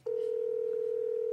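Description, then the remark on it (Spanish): A phone's ringback tone while the caller waits for his father to answer: a single steady electronic beep that starts abruptly and holds at an even, fairly loud level, with no voices. “Siempre se tarda en contestar.”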